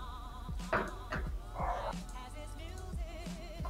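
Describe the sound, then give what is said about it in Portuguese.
A dog barks several times in short, sharp bursts over a steady background hum, with a longer yelping bark partway through. “O cachorro aí respondeu de alguém.”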